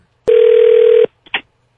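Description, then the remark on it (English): A telephone rings on an outgoing prank call to a doctor's office on Rock 107 radio: one loud, steady ringback tone lasting under a second, followed by a faint click and a short burst of noise. No one speaks. “today we're going to be calling a doctor's office”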